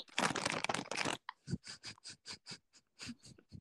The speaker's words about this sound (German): Was raschelt da wohl? Lebkuchen. Richtig.